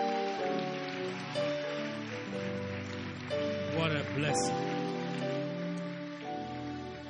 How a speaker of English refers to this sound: Why don't you appreciate them with a hand clap?